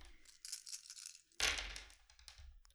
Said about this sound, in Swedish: Då kan någon annan få ta fram nio tärningar och slå dem bara åt mig och säga hur många sexer ni får.